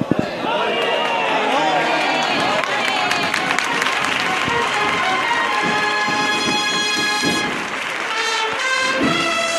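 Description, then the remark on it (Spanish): Steady applause from a large crowd in the street and from the balconies fills the scene, continuous and fairly loud, as a brass band links into its second march for the Señor de la Oración and the Virgen del Rosario, with people's voices mixed in underneath. “Y se enlaza la segunda marcha aplausos también desde los balcones, algunas mujeres de mantilla y los señores de chaqueta.”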